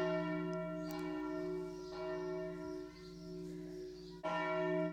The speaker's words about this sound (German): hier läuten erstmal die Glocken. Die Glocken läuten. Das ist in Berlin. Ich, also ich habe das schon ewig nicht mehr gehört. Ja? Das ist Tempelhof, nicht Berlin.